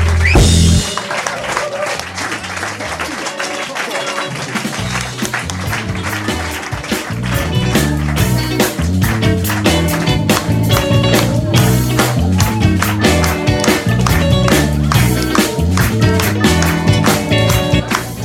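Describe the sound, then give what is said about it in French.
Loud, sustained audience applause for a band at the Blues Café concert, dense overlapping clapping that swells slightly midway, with low tonal sounds rumbling underneath. “On peut les applaudir encore plus fort.”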